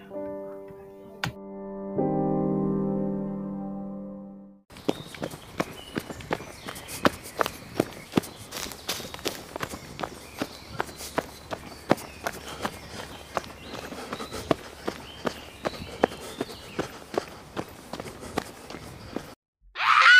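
sound effect, footsteps running

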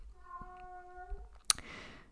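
animal, cat meowing

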